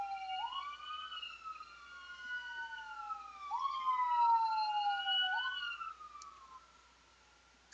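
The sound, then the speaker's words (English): A wailing emergency siren sweeps up and down in long, repeating glides, fairly loud and steady before fading out toward the end, with no voices over it, heard at a spot right next to three hospitals and three blocks from a fire station. “Next time we have a next time we have a siren that loud, I'm gonna be like, I should have started dancing.”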